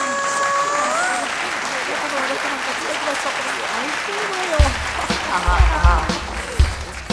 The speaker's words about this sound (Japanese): それでは皆様お待たせいたしましたクリスマスツリーの点灯です今夜なんとニューヨークから駆けつけてくださったスペシャルゲストに伝統をお願いしたいと思います拍手でお迎えくださいませ